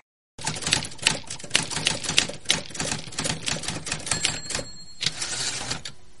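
Rapid, steady typewriter keystrokes clatter, with a brief pause near the end before the typing resumes, likely the carriage bell ringing once amid the clicks. No voices are present.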